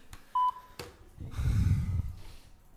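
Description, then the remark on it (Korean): A single short electronic phone beep, then a sharp click as the call is redialed because the line keeps coming up busy while calling a reporter, followed by a low muffled rumble of handling noise. No one speaks. “계속 통화 중이네요.”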